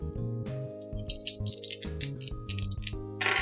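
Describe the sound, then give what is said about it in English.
Dice are rolled for a character's condition roll in a tabletop role-playing game, with a three as one result. They rattle and clatter across a surface in a quick burst of sharp, bright clicks, irregular in rhythm, over a low, steady humming tone underneath. “Neither of them on the dice were good.”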